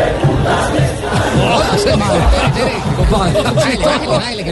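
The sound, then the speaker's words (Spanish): A dense crowd of football fans, a supporters' group (barra) in a stadium, chants and shouts together continuously, a loud, rough wall of many voices with rhythmic swells, sustained throughout without pause. “Escucha la barra, vea, vea. Escúchala, escúchala.”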